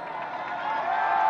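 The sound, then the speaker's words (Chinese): An excited audience applauding and cheering at the opening of a sea music concert, a dense, steady wash of many hands clapping mixed with crowd noise, holding at a fairly even level and swelling slightly toward the end. “兴奋的观众热烈的鼓掌喝彩。”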